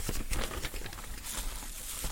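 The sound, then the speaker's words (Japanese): Crisp crinkling and rustling of a paper sheet, a child's school timetable, being handled to test a microphone, with irregular bursts of crackle and scraping throughout, no voices present. “例えばこういう紙これ今子供のね、時間割表子供の時間割表、今手元にあるんですけど、こういう紙をね、こういういじる音とかね。”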